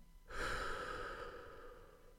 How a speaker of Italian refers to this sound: fermatevi, fate un respiro profondo, anzi facciamolo insieme, inspiriamo ed espiriamo.